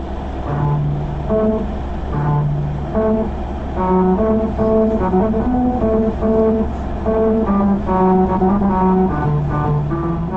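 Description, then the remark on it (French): Tyres rolling over a musical road in Okinawa, Japan, drone out a melody, a string of buzzy sustained notes stepping up and down in pitch over a steady low engine and road rumble, with no talking. “Toujours au Japon, il y a cette autre route musicale à Okinawa.”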